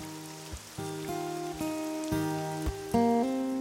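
Steady rain hisses throughout beneath soft, sustained musical notes that change in slow steps about every half second. There is no talking.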